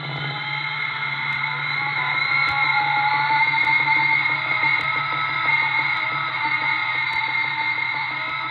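A drilling turbine boring through rock about 300 metres deep, at the Bedretto Underground Laboratory in Switzerland, grinds out a steady, loud mechanical drone with a dense whine and a fast, even pulsing rattle underneath, unbroken throughout and with no voices.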